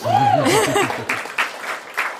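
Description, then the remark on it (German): A voice laughs, then an audience claps: a short run of scattered, fairly soft claps with uneven rhythm rather than a full, steady round of applause. “Also kann man auch mal klatschen, das ist auch gut.”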